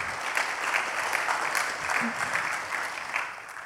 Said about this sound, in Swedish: Ja, en applåd, snälla. Välkomna.